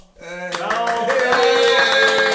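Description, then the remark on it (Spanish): A burst of applause from a live audience, dense rapid hand clapping that starts abruptly and holds steady and loud, mixed with voices cheering over it. “¡Aplausos!”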